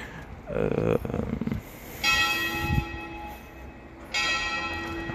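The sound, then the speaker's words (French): A village church bell tolls twice, about two seconds apart, each stroke ringing out with a long shimmering hum, preceded by a brief rustling noise and no talking. “Entendez la belle cloche de mon beau village.”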